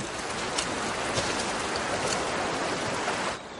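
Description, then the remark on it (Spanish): Flowing river water in a drama scene where the characters Brienne and Jaime walk along a riverbank, rushing in a steady, dense hiss with faint splashy detail, holding an even loudness throughout before easing slightly at the very end. No voices are heard. “Brian y Jamie caminan por la ribera de un río.”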